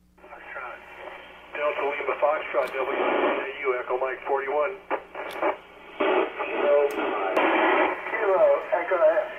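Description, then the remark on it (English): Radio reception of the International Space Station passing over, with the antenna rotors operated manually: thin, band-limited voices come through a receiver in bursts, with a steady low hum, hiss and brief clicks throughout. “This is of the ISS, the International Space Station, and uh, I was operating the rotors manually.”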